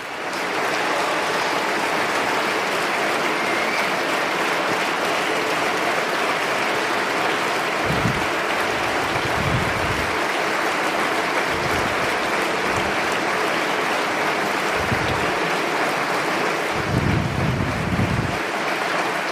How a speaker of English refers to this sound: Dein Applaus. Your applause,